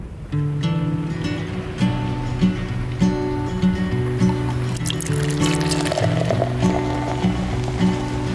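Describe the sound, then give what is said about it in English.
Coffee pours steadily into a cup, a continuous liquid filling sound over a soft, rhythmic musical backdrop, moderately loud with no talking. “So, with that, pour yourself a cup and let's get to it.”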